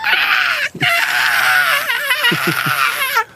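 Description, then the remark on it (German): A loud, strained voice imitates the frantic screeching and wailing of an animal locked in a kennel, one continuous harsh cry with a brief break, rising and wavering pitch, intense. “Aber das sind so, also das sind so, das sind so ähm, Exorzistenlaute, wenn der in den Zwinger gesperrt ist.”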